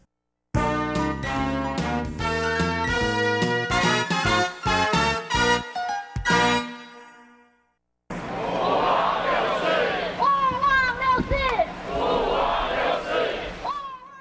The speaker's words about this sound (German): 4. Juni nie vergessen, skandieren die Teilnehmer der Gedenkveranstaltung am Donnerstagabend, dem Abend des 4. Juni. Sie haben sich auf dem Platz der Freiheit in Taipei versammelt,